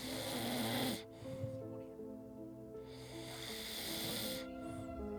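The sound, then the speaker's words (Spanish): A person snores loudly, a raspy, rumbling drone stretched over a few seconds, with a brief breathy break in the middle before the throaty snore resumes. “Te escuché roncar, güey.”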